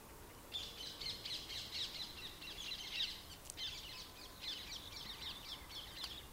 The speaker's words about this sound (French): ici, en ce moment, nous entendons les oiseaux. On entend la ville qui, qui bruisse.